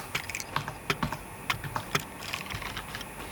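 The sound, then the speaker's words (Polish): Typing on the keyboard of a small device, testing how loudly its built-in microphone picks up the keys: a quick, uneven run of crisp clicking keystrokes with small pauses between bursts, fairly soft overall, and no voices. “Napiszemy coś.”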